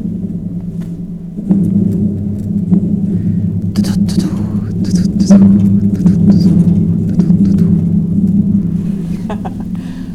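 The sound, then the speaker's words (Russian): A recorded train sound effect: a train rumbles in after a quiet start, with a steady deep droning hum and scattered metallic clicks and rattles on top, fairly loud throughout. “О, сейчас будет поезд.”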